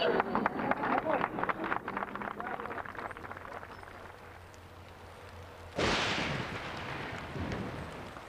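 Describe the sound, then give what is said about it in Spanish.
Heavy rain pours down in a dense, steady hiss that swells suddenly louder partway through, following a stretch of scattered sharp taps and crackles, heard from a kitchen in Ralcolepoy. “Años después, en su cocina de Ralcolepoy, bajo una fuerte lluvia, reiteraría lo mismo.”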